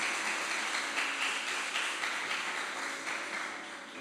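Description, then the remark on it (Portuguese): A church audience applauds the Lord as it rises to its feet, a dense, steady wash of many hands clapping that holds evenly for several seconds and slowly tapers off at the end, with no voices standing out. “Aplauda o Senhor, vamos colocar em pé, em nome de Jesus.”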